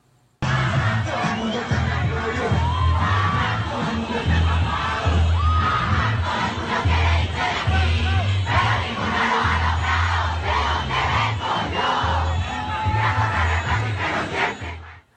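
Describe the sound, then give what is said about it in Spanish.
A large crowd of protesters in the streets of Colombia chants and shouts together, loud, with a steady rhythmic pulse underneath, continuing without a break for the whole stretch. “Incluso hoy se escucha en las calles del país donde los colombianos se encuentran protestando con frases del grupo como No se rinda el que nació, donde por todo hay que luchar.”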